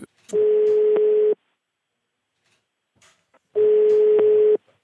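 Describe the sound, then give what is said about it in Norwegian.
Two steady, one-second tones with a narrow telephone-line quality, separated by a short silence: the ringback tone of a phone call from NRK Ukeslutt waiting to be answered, clear and with no voices. “Hei, det er Sara Victoria Rygg fra NRK Ukeslutt som ringer.”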